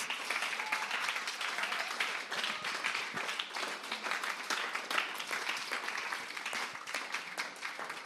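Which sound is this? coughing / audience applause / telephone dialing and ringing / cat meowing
audience applause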